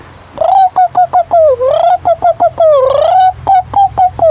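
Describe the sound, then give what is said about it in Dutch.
A voice imitates the mating-season call of a turtle dove: a rapid, insistent string of about a dozen short, high, wavering cooing yelps, loud, with a couple of longer drawn-out swoops. “En als ze in de paringstijd is, dat wil zeggen dat ze gedekt wil worden, dan doet ze.”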